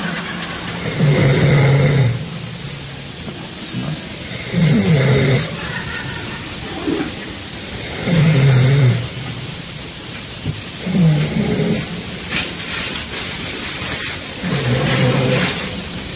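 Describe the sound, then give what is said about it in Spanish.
Loud human snoring, five rasping, rumbling snores in a steady rhythm roughly every three seconds, with a noisy hiss between breaths and no talking. “El ronquido siempre nos da risa, pero en realidad pero ese es un ronquido inofensivo, ¿no?”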